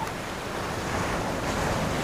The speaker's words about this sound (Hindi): कितना शांत और सुंदर लगता है ये लहरें पैरों को छूकर मन और दिल को ठंडक पहुंचाती है